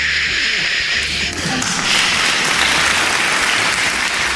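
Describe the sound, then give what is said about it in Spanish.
An ovation sound effect played on request: a loud, sustained burst of crowd applause, dense clapping filling the whole stretch at steady intensity, with no voices over it. “Esa, ovación, tú pones ovación, esa ovación, ya que la tienes.”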